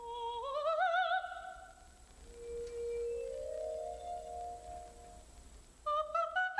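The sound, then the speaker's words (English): Glass harmonica playing clear, ringing sustained notes with a slight wavering vibrato: a rising high phrase, then a long, steady lower tone, and finally a new bright note entering near the end. No voices. “Uh, so he was clearly associating the sound of the glass harmonica with, with madness, with delirium.”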